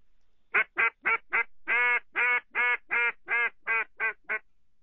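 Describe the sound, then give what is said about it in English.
A small-reed duck call, about the size of a pinky, with a small soundboard and small reeds, blown in a run of about twelve raspy quacks: four short ones, then longer drawn-out notes that shorten again toward the end, steady rhythm, no voices. “Got a small, small soundboard, small reeds, everything small, so you can't make a loud note.”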